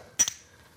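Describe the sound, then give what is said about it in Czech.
Two quick glass clinks during a toast, the first sharp and bright, the second softer a beat later, with a short ringing tone that fades into quiet. Clear, with no talking. “Co nám povídá hezky, na zdraví, na zdraví.”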